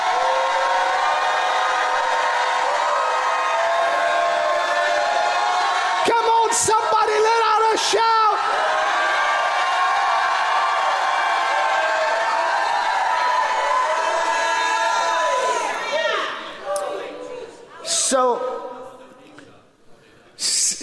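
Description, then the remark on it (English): An audience shouts and cheers in a loud, sustained roar of many voices, with sharp whoops and yells rising above the din before it breaks up and fades near the end. “I'm going to send you the Holy Spirit of truth to stop till I hear a shout.”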